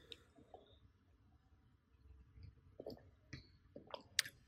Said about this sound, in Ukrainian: Але тако, знаєте, я ще хочу попити, і вам доведеться чекати, поки я відкрию свою воду.